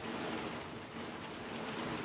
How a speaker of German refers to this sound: Ein bisschen Hagel ist dabei, höre ich gerade. Ja, nee, der Regen ist einfach nur so laut.